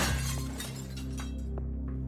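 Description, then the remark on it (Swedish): A laundry-room window pane smashes with a sharp, loud crash, followed by a second or so of glass shards tinkling and scattering, over a low, steady droning tone. “Det är först när hon hör hur fönstret i tvättstugan krossas som hon inser hur fel hon haft.”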